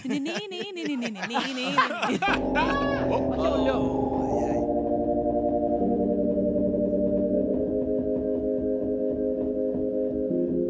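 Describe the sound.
Experimental music from a synthesizer controlled by a woman's brain, its pitch rising as her brain is excited: layered, sustained electronic tones hold steady and loud, with a faint pulsing low beat underneath, after a couple of seconds of warbly, voice-like sounds at the start.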